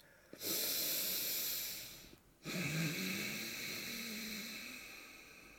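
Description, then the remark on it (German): Two long, hissing breaths, each a steady airy rush lasting a couple of seconds, separated by a brief pause, with a soft throaty rasp underneath like ocean surf; no talking. An "ocean breath" breathing technique from a yoga workshop being performed. “Atemtechnik, die mir eine andere weise Frau im Internet im Rahmen eines Yoga-Workshops gezeigt hat. Ocean Press.”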